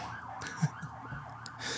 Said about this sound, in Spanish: Ahí vienen las sirenas. Dios, ayúdame.